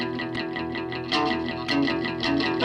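Instrumental surf rock guitar music from the 1950s or 1960s plays at a steady, moderate volume, with bright, effects-laden guitar over a driving rhythm and a few louder strummed accents. No voices are heard.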